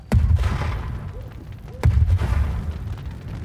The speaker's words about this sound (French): Il est minuit, ce 5 octobre 94. À Chéry, village de 300 âmes près de Genève, d'habitude si calme, des détonations fortes viennent fendre le silence de la nuit.